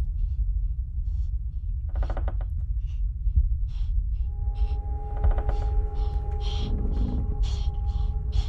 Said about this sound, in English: Guys, do I open this door? There's something breathing in there.